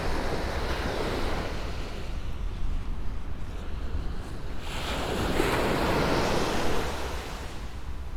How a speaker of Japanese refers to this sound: しばし波の音をお楽しみください。